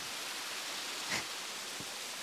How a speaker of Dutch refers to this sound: Haal even diep adem. En laat je meevoeren door het geluid van de waterval.